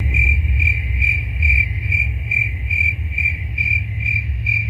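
Crickets chirp in a steady, evenly spaced pulse, roughly two chirps per second, bright and clear over a low background hum, with no voices.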